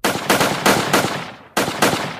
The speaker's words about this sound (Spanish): Recibió 10 disparos.